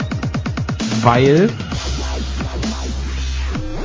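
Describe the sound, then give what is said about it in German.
A dubstep track plays with rapid pulsing bass hits, a swooping wobbly synth, then a long droning low bass, while a voice talks over the music. “das, was du gerade hörst, das ist so Dubstep.”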